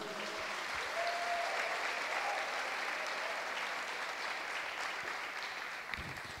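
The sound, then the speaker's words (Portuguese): Sustained applause from an audience clapping for the name of Jesus, a dense, steady wash of clapping that holds at an even level for several seconds before tapering slightly at the end, with faint voices mixed in. “Aplauda o nome de Jesus.”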